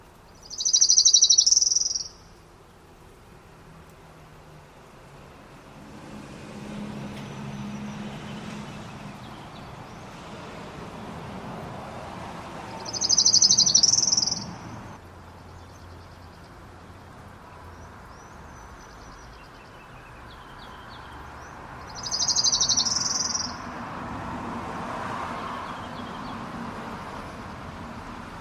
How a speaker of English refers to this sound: So, here is once again the Orange Crown Warbler song.